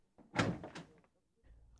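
A servant opens the front door of a large house: a short scraping, rattling burst with a dull thump lasting under a second, then a faint low rumble afterward and no voices.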